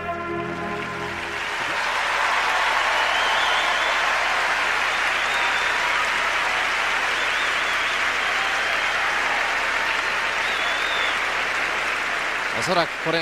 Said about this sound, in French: Effectivement, le public acclame quelque chose comme ça. C'est unique.